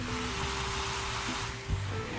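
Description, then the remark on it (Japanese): Blueberry and apple jam, with lemon juice just added, simmering in a pot gives off a steady hiss of bubbling and sizzling, with a couple of soft low pops near the end and no one speaking. “りんごちゃんはねもうちょっとですねもうちょっと柔らかくした方がいいな、うん、こんな音がしてる”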